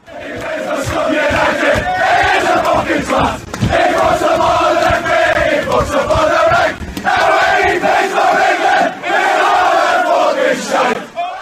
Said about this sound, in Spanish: La música y el fútbol siempre han ido de la mano, desde los cánticos e himnos que podemos escuchar en los estadios.